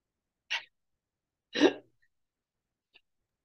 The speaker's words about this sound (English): And you know, oh man, I had some high proof whiskey go down the wrong pipe. That's um. Do that you okay? Oh, hold on, I got a cough.